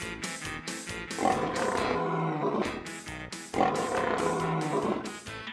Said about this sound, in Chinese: 聪明的小朋友，你猜对了吗？我就是狮子。